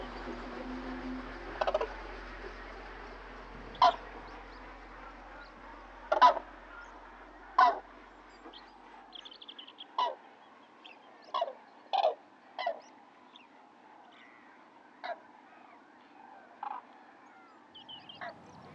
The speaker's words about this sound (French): Et donc ça m'a conduit euh, à l'âge de 20 ans à acheter euh, ma première parabole pour pouvoir enregistrer euh, le, le chant des oiseaux et, euh, et d'autres, euh, le son d'autres animaux.